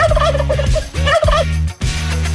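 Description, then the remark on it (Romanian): A turkey gobbles loudly in two rapid, warbling bursts, with a brief pause between them over a steady low background hum. “Fără să vrem, uh, ne-am distrat, am râs, am dat curcan pe post, tiruri, uh, în fine.”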